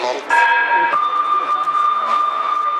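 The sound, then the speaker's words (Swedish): A Swedish fire station alarm sounds loudly and steadily, dispatching Malmköping and Flen units to a building fire: a short two-pitch electronic tone that shifts into a long, sustained beeping note, with faint radio-like chatter underneath. “Ja, alltså att väckas av ett sånt här larm, det är ju...”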